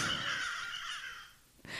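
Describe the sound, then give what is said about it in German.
A crow gives a long, harsh, rasping caw that fades out, followed by the start of another sharp call at the end; loud, with no talking. “Ja, jetzt gleich passt die Krähe mir auch nochmal richtig gut.”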